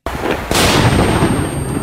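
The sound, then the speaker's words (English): A sharp crackle gives way to a loud firework bang, from a firework lit on the 4th of July and exploding in a split second before it could be thrown, followed by a heavy, rumbling roar that lingers to the end, with no one speaking. “So, 4th of July lit up a firework um, thought I could throw it away real quick, and in a split second, blew up my blew off my whole hands.”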